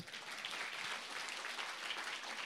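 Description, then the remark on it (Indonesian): An audience claps hands together, a dense, steady wash of many overlapping claps at full volume that carries on without a break and has no talking over it. “Yang tepuk tangan jangan satu, yang lain tepuk tangan.”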